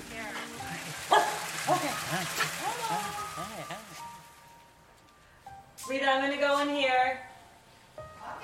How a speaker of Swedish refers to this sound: Hon har både en hästgård och en jättevilla med pool, hemhjälp och så hunden Bingo som hälsar oss välkomna.